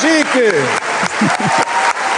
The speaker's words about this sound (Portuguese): espera, deixa-me cá aplaudir a opto.